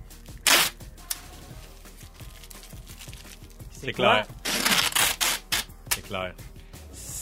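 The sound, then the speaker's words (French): Box packing tape is pulled off a roll during moving season: one quick loud rip, a pause, then a run of longer screechy tearing pulls. A voice speaks briefly in between. “C'est du tape à boîte. C'est le tape à boîte!”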